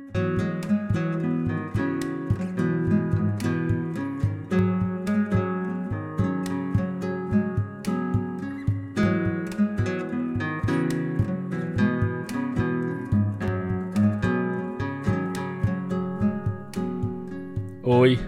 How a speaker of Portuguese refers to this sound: o violão que você está ouvindo